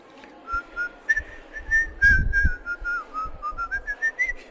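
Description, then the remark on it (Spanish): Someone whistles a clear, wavering melody for several seconds, the tune rising and falling in short connected phrases, steady, with some soft low thumps in the background. “Los silbadores que le llamaban.”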